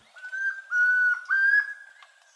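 A chestnut-crowned antpitta (tororoi comprapán), recorded for the Colombian bird sound bank of the Instituto von Humboldt and Cornell University, sings three clear, pure whistled notes in quick succession, each slightly rising, heard alone with no other voices.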